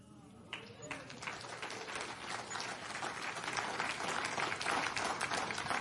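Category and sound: crowd, audience clapping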